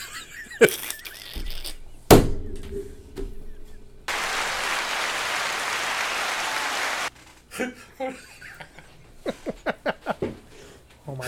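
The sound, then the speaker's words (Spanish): About three seconds of steady, dense applause, loud and even, set between bursts of talking, with a couple of sharp knocks earlier on. “Ahora, para pues aplauso.”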